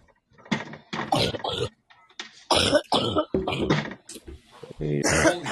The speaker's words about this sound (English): What are you coughing out?